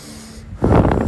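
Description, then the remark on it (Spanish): A single deep, airy breath rushes in after a moment of quiet hum, loud and breathy, with no talking. “respiración, respiración.”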